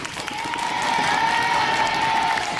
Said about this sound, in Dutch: Applaus voor het nieuwe decor.